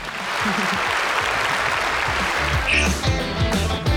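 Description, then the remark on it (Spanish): A burst of loud, dense applause welcoming a guest on a radio show claps steadily for a few seconds, then fades under tonal, music-like sounds that take over near the end. “por favor, démosle la bienvenida con un fuerte aplauso a lo más negrito y brillante de esta madriguera,”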